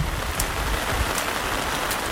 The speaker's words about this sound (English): It doesn't seem possible, but the rain gets heavier